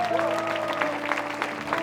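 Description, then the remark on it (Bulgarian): A church audience claps together in steady, dense applause for people and their decision, with sustained keyboard or organ tones holding underneath throughout. “Брати и сестри, можем ли да ръкопляскаме за всички тия прекрасни хора?”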